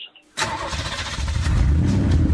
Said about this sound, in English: Let's fire up the car and do a little travel segment. Can we do that?